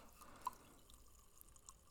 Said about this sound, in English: And just listen to the fizz going on. That's, yep, that's the bubbles. Those are the bubbles. So the Princess Yum Yum is a raspberry Kolsch from Denver Beer Company, and it is 4.8%, and it is so tasty.